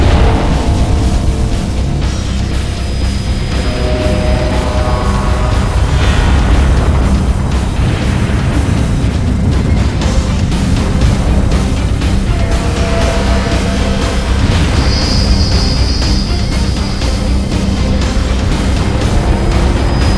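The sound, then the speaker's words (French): A massive, sustained antimatter explosion, set off when antimatter hidden in a lithium tank in a cruiser's hangar is released from its confinement field, roars for about twenty seconds, a dense, loud wall of deep rumbling with ringing tones drifting through it. No one speaks. “rage de l'explosion emporta l'endroit ainsi que presque un tiers du puissant croiseur, dépressurisant des pans entiers de couloirs et de ponts, congelant ou asphyxiant toutes les personnes présentes sans équipement.”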